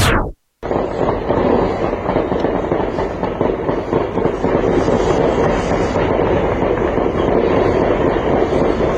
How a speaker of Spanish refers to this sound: Así como usted lo está escuchando con estas ráfagas de metralletas y de armas de alto poder, se despertaron hoy los colimenses. Una noche de tiroteos en la ciudad de Colima, capital del estado del mismo nombre, por quinto día consecutivo.